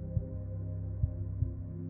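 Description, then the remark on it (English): Deep, muffled heartbeat thumps, three in all, the last two close together, pulsing over a low, steady droning hum with no voices. “The shadows viciously whirl around Argo, with each heartbeat, they crash against the gray stone walls.”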